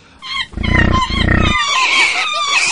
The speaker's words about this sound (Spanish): Ahí va, está abriendo la caja. Uy, uy, uy, uy, uy. Han salido unos monos rabiosos, babuinos.